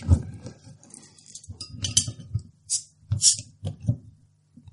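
Beer bottles, among them a Moroccan Casablanca beer, a Canadian beer and an American beer, being opened, with clinks of glass and light handling knocks, then two short, bright hissing pops as the caps come off.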